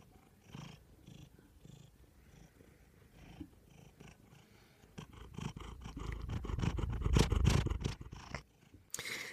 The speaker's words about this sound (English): He's actually been snoozing in my lap this whole time, purring away. And I'm I'm going to see if I can get the the microphone a little bit closer just so you can hear a little bit of this purring.